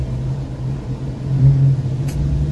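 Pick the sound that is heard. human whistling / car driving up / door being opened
car driving up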